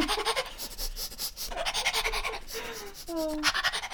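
A dog pants rapidly and steadily while searching for something on command, with quick rhythmic breaths throughout, and a brief high whine or squeak near the end.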